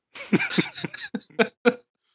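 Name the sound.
cough into the microphone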